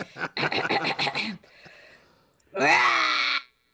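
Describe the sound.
A person lets out a loud, drawn-out imitation roar, a voiced growl that rises in pitch and lasts about a second. Brief speech-like vocalizing comes before it, then a quiet pause.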